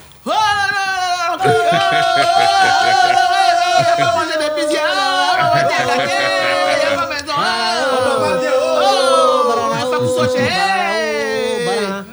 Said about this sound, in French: Bon, vous savez, on a crié, c'est quand ils vont Ils Ils nous ont entendu.